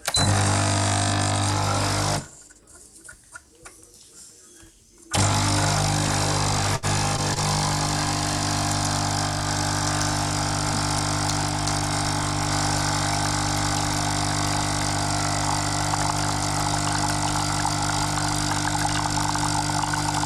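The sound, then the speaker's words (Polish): A 15-bar capsule espresso machine pumps and brews coffee with a loud, steady mechanical drone. The hum cuts out briefly for a few seconds, then resumes and runs continuously, with no one talking. “Dodam też, że ten ekspres jest 15-barowy, pod, pod, pod ciśnieniem 15 barów robi kawę.”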